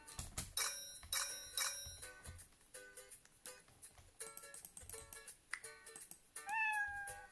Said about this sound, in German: Man kann die Katze zum Miauen bringen.